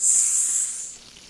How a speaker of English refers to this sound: Hey, you know, you can make a fajita at home, but you can never quite recreate the sizzle.